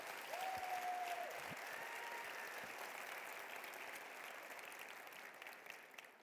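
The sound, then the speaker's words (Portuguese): An audience at a Christian church service applauds with sustained, dense clapping that holds steady for several seconds, with a faint whistle-like tone briefly rising above the crowd noise at the start. “Aplaude, irmão. Pode aplaudir.”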